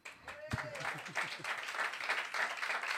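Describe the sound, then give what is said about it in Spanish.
An audience breaks into applause after a brief pause, a dense, steady wash of many hands clapping that holds for several seconds, with faint voices mixed underneath. “Gracias, porque este ha sido un aplauso merecido.”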